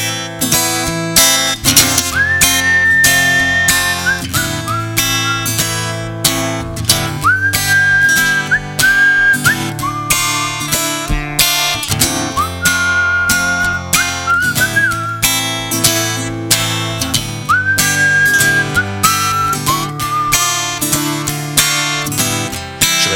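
A whistled tune carries the melody over a full, steady musical backing, with short phrases that rise, hold and slide down, repeating every few seconds at a loud, even level.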